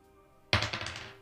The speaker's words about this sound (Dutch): Nou, nu moet ik met een achtzijdige dobbelsteen gooien.